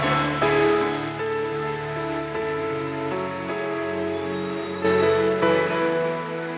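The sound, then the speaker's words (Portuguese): An audience applauds Jesus as loudly as it can at a pastor's call, a steady, dense wash of clapping that continues throughout while sustained keyboard chords play underneath. “Você pode aplaudir a Jesus o mais forte que você puder, por favor.”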